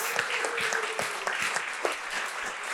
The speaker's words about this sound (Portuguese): Você pode glorificar a Deus com as suas palmas, dar um grito aí, aleluia. Glória a Deus.